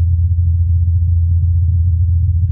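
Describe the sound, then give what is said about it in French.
A low, steady drone of a Mars helicopter's rotors, picked up by the microphone on the Perseverance rover, hums continuously at a deep pitch with a slightly fluttering texture, audibly speeding up at one point, and no voices are heard. “Ce qu'on entend là, c'est le, c'est l'hélicoptère. On l'entend accélérer là d'ailleurs à l'instant.”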